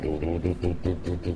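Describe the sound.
A man vocalizes a quick bass riff with a string of rhythmic, low, voiced "du" syllables, about seven even pulses sung, imitating an electric bass line.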